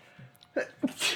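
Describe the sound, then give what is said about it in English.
A single sneeze: two short catching breaths build up, then a sharp, hissing burst that cuts off quickly. “Bless you. Excuse me.”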